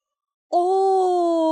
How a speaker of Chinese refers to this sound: 小猪们打着大大的哈欠爬了起来。